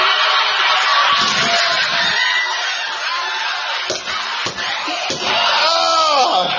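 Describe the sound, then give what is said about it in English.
A downloaded canned studio laugh track roars loudly and continuously, a dense crowd of many voices laughing and hooting together, with a few brief sharp bursts near the end. “I am downloaded a laugh track for myself.”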